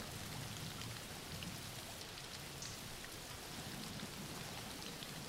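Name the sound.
background rain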